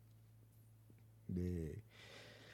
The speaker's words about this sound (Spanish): Ese, este estornudo me, me noqueó, güey. Ah, me reinició, sí.